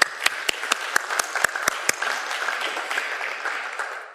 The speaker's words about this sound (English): Give those people a round of applause, folks.